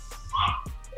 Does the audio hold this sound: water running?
no